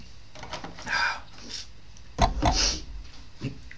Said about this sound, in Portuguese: Deixa-me dar só aqui um golinho de água.